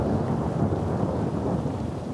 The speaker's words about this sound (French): Mais on, on vient de se taper un bon gros orage avec de grêle. Et là, ça s'est un petit peu calmé, mais on a encore le tonnerre qui gronde, les éclairs.